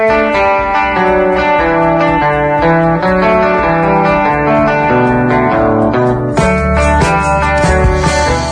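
The opening of a Catalan pop-rock song: a full band plays at steady loudness, with layered guitars, sustained chords and a driving rhythm, the texture shifting briefly near the end; no voices are heard.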